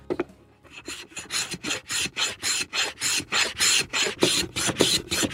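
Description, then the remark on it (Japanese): A block of dried bonito (katsuobushi) being shaved on a plane box with a protruding blade: a steady run of about ten or eleven close, rasping strokes, each a bright scraping swish repeated at an even rhythm, with no talking. “じゃあ最後にちょっと今日せっかく持ってきていただいたので削っていただいてもいいですか”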